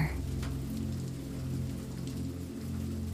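Steady rain pattering on a surface, a continuous soft wash of drops with a low rumbling undertone, even and unbroken throughout with no voices.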